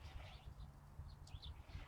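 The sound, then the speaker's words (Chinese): Light-vented bulbul calls: a few short, bright warbling notes rising and falling, fairly faint, over a steady low rumble of background noise. “哦，我听的这个还是白头杯的声音”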